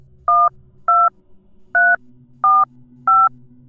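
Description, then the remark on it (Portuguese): Five short, loud two-pitch telephone keypad beeps are dialed in an uneven rhythm as a man calls the police, each a crisp dual-tone burst, over a faint low hum with no one speaking. “E obviamente ele ficou em choque, não pensou duas vezes e ligou para a polícia.”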